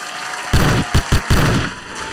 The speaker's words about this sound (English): No announcement is bigger than hand claps for the crew, the team.